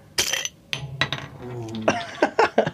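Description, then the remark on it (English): A carbonated drink bottle pops open with a short, sharp hissing burst, followed by scattered glassy clinks and small knocks as it's handled, with faint voice-like murmuring partway through. “What what what what is this bad boy we're popping out here?”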